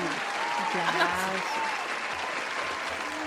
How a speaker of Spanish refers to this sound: ¡Aplausos, por favor!